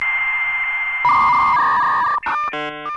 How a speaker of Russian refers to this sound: Да, это было где-то через пару лет я накопила на компьютере, у меня был модем Dialab, который вот звонит такой.